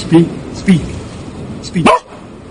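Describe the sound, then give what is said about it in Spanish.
A female dog gives three short, vocal barks that sound like a drawn-out "wow", spaced unevenly over a couple of seconds against a steady low background rumble, barking on her owner's command to speak while he drives. “habla, pues ella hace wow.”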